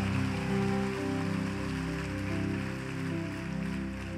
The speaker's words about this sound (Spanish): Ahora dar el mejor aplauso que le hayas dado al Señor en mucho tiempo.